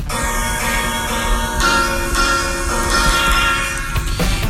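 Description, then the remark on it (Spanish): A sampled music passage from a vinyl record, the main sample of a track recorded in an apartment in Boston, plays loud and continuous with rich sustained harmonic tones and no voices. “Este sample viene de un vinilo”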